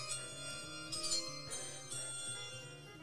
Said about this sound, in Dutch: Ja, dat is de bel. De laatste ronde.